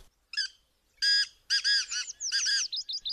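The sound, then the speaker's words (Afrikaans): A pheasant calls nearby in a quick run of loud, harsh, stacked cries that end in a few short rising notes, with no voices or other sounds around it. “Net toe hoor hulle 'n fasant naby hulle roep.”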